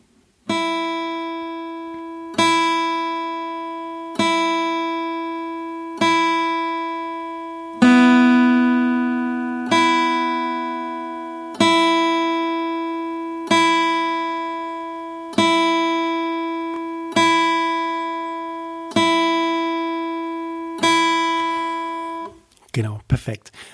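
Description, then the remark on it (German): An open guitar string picked with alternate picking over and over at a slow, steady pace, about a dozen even notes of the same pitch, each ringing out clearly and fading before the next. “Du nimmst dieses Alternate Picking und schlägst eine Leerseite ein, zwei Minuten an.”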